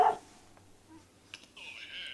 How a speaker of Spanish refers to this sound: Ahí está el perro de la pet shop del lado, del vecino.